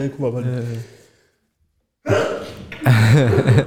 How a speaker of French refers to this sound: et bien bizarre. mais, mais, voilà, c'est aussi la beauté de l'éternuement.